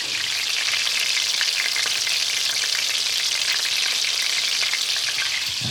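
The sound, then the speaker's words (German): Food coated in breadcrumbs fries in about a quarter litre of hot oil, a dense, continuous hiss with scattered pops, fairly loud, with no voices over it. “Viertel Liter Öl, abwaschen, einen halben Geschirrspüler habe ich eingeräumt, ein Viech ist auch gestorben dafür. Alles in allem eigentlich unnötig. Aber ich meine, man höre sich das an.”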